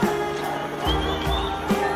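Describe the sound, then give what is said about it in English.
A large anti-lockdown protest crowd of thousands in Melbourne, Victoria, roars in a dense, steady wash of many voices, with deep rumbling swells and a few louder rises, no single voice standing out. “This is the biggest crowd we've seen in Melbourne to fight these lockdowns to date.”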